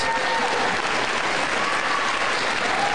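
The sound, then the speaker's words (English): Sustained applause from an audience at a speech, a dense, steady wash of many hands clapping at an even loudness for the whole stretch, with a faint murmur of crowd noise underneath. “That was an applause line.”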